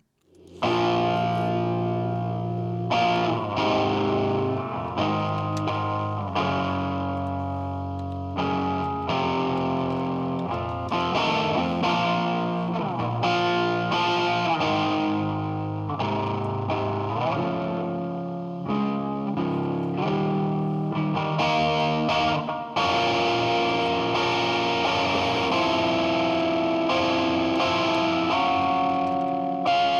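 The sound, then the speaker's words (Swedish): Heavy, distorted stoner sludge groove metal with thick down-tuned guitar riffs and a steady, plodding rhythm, loud and continuous throughout with no singing or talking. “är i alla fall ett stoner sludge groove metal band enligt Metal Archives.”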